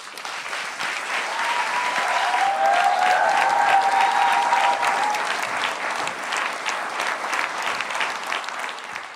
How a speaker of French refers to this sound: On est à deux doigts de la standing ovation, on n'a pas encore commencé.